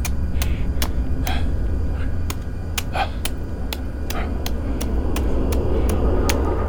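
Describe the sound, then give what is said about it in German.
A rapid, uneven series of sharp hard strikes as an old farrier hacks at a block of ice with a hammer and a pick, about a dozen blows over a steady low rumble, loud, with no voices. “zu sagen, hat der alte Mann wie besessen angefangen, auf den Eisblock reinzuhauen.”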